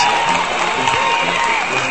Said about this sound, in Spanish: Por favor, aplausos. Gracias.